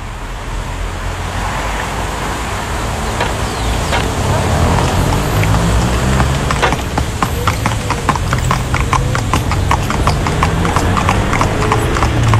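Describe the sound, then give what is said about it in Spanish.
Hooves of a horse-drawn victoria carriage in Viña, recorded while riding aboard it, clip-clop in a steady, even rhythm, growing crisper and louder partway through, over a constant rumble of road and traffic noise, with faint talking underneath; a heritage sound that has since disappeared. “Esto en Viña, ¿no? sí, las victorias de Viña.”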